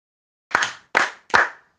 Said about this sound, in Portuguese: Mas agora, olha só, vou fazer três palmas e vocês vão ouvir para dizer se foi num ritmo mais lento ou se foi num ritmo mais rápido do que o anterior, tá bem? Presta atenção.